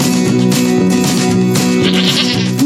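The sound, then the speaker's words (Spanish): Sheep and goats bleat loudly and continuously, several overlapping wavering calls, filling the whole stretch with no speech. “Serafina y Séfora siempre se burlaban de las ovejas, de las cabras”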